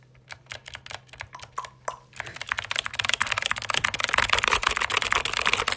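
Typing on a computer keyboard for ASMR: a few scattered key clicks at first, then a fast, dense flurry of clattering keystrokes that keeps going, with no voices.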